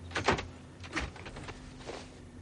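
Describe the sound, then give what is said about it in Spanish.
A metal gate on a street, tied with a chain, rattles and gives way: a loud clanking burst, then a second scrape and a softer third rattle, with a steady low hum underneath and no voices. “Atada con una cadena, la verja cede.”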